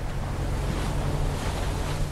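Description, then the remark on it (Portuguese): A small motorboat called a voadeira runs across open water on Marajó, Brazil, its engine droning low and steady beneath loud rushing wind and splashing spray as it slams the water, continuous with no voices. “O barquinho a motor é chamado de voadeira. É pequeno, parece mesmo que a gente vai voar a cada pancada que dá na água.”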